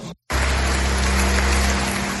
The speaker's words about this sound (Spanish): Se fundían los dos en un abrazo, uno de los momentos de la celebración que la Asamblea acompañó con un caluroso aplauso.